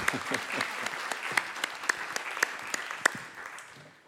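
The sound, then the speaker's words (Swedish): An audience applauds with dense, steady clapping, a few sharper claps standing out, holding at a fairly even level before thinning and fading at the end. “Kan vi tack. få en applåd”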